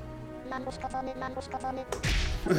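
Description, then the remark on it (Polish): A string of soft, evenly spaced tonal blips gives way to a sudden, loud, whip-like swoosh, a video game attack sound effect that swells and stays bright to the end. “Tu jest ruch, czyli głos ataku.”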